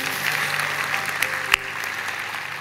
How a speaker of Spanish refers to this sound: que yo saludo y que saludamos con un aplauso de familia.